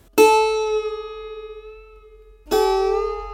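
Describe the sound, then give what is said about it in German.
Two plucked notes on a handmade string instrument built from an Amazon tree, the first ringing out for over two seconds with a slow, wavering decay before the second is struck. Bright and resonant, with no voices. “hatte ein ganz spezielles Seiteninstrument. Er hat das selber gebaut als ein Amazonasbaum.”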